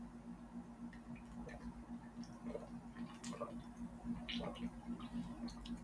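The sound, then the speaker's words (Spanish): Someone quietly sips water, with small wet clicks and swallows scattered over several seconds above a steady low hum. No one speaks. “perdón, solito de agua porque se me sacó la garganta.”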